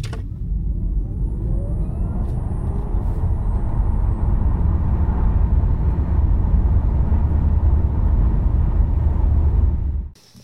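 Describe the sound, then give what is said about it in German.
An electric car accelerates hard from a standstill toward its top speed, its electric motor revving up with a rising whine over a steady, loud low rumble of road and motor noise, sustained for about ten seconds before cutting off abruptly. “das äh, Beschleunigungsgeräusch eines Elektrofahrzeugs beim Losladen”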